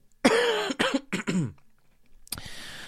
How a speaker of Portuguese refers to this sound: É que eu estou um pouco constipado, certamente irei tossir em 3, 2, 1.